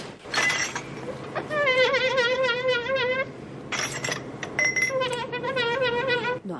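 Glass Christmas ornament balls being polished, giving repeated high, wavering squeaks of cloth rubbing glass, each lasting a second or so, between bursts of brisk, hissy wiping.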